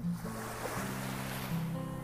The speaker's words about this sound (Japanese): 波の音をただただ聞いていると心が穏やかになりますこれってその人間の体内の中でいる音そこで聞いていた音と同じ同じ波動だというふうに言われたり